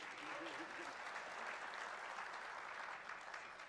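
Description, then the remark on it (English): An audience claps steadily for several seconds to welcome a guest, a dense, even wash of applause at a fairly strong level with no pauses, a few brief tonal notes of transition music surfacing near the start. “if you want to give him some clap and transition music.”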